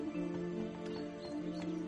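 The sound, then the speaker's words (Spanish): Horses ridden toward the ranches clip-clop at an even trotting pace over a steady, sustained tonal backdrop, the hoofbeats moderately loud, with no voices. “van ...montado en, sus caballos en dirección a, a los ranchos”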